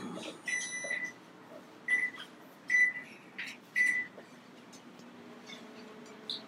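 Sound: microwave oven running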